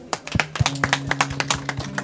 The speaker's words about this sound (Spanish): Muy bien, fuertes palmas.